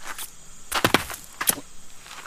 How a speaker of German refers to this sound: Muss ich aber ganz schön durchschlagen hier bei diesen Gewächsen.